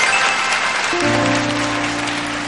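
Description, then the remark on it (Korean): An audience applauds steadily and loudly, a dense wash of clapping throughout, with a low sustained musical chord coming in about a second later and holding beneath it. “여러분 박수 한번 부탁드리겠습니다.”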